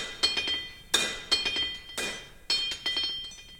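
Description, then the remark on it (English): A hammer clinks against a steel anvil in a quick, uneven series of sharp metallic strikes, each leaving a bright ringing tone that lingers between blows, as a man bangs on steel. Fairly loud, with no voices. “Um, but I start getting remnants of like sounds of my dad like banging against like steel.”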